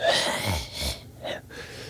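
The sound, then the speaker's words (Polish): A voice imitates a man in a club panting right behind the speaker, a few loud, rough breaths in and out in quick succession, with no other talk. “No i siedzimy na loży i gościu centralnie stanął obok mnie i dyszy mi za mną tak.”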